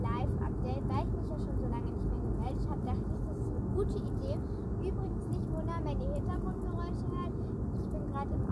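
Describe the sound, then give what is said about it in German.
Steady, heavy low rumble of a car interior while driving to a relative's birthday celebration in nice weather, continuous throughout, with voices talking over the engine and road noise. “Und deshalb müssen wir jetzt mit dem Auto da ein bisschen hinfahren.”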